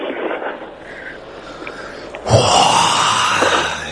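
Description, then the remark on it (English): Loud heavy breathing into a microphone with a rough, noisy rasp, starting softer and swelling into a strong exhale halfway through that lingers. “Oh, stop with the heavy breathing.”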